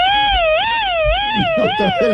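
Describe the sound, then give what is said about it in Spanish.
An ambulance siren wails loudly, its rising and falling tone sweeping up and down in a steady cycle, while voices murmur faintly beneath it toward the end. “Prendió la una ambulancia.”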